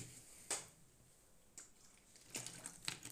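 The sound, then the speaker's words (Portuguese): Quiet crinkling of a plastic water bottle being handled, with a few sharp crackles and squeezes spaced irregularly over a few seconds, without any talking. “Vou buscar a minha garrafa d'água, tá bem?”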